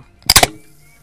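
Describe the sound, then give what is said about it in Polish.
A can of real beer cracks open with a sharp, crackling burst of fizzing spray that splashes the person opening it, then quickly fades to a soft hiss. No one talks over it. “Autentyczne piwo. Poważnie otwieram puszkę.”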